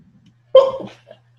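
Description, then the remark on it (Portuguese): A single sharp sneeze bursts out, loud and abrupt, tapering off over about half a second with a faint low hum underneath. “Saúde.”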